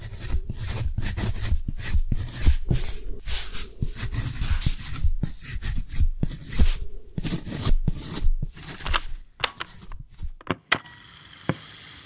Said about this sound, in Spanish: Grabo con micrófono direccional el sonido de su trazo en el papel romaní.